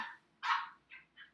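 A dog in her kennel, barking at her toys, gives a sharp bark followed by two shorter, softer yips, sounding somewhat muffled, with no one talking.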